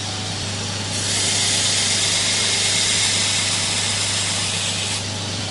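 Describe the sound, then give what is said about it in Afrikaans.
A steady, loud rasping hiss of a knife blade being ground on a coarse 60-grit abrasive belt runs for about four seconds over the constant low hum of the grinder's motor. No one speaks. “En mens hou nou maar aan met die 60. Sommige mense verkies om met 'n 80 grein te begin werk.”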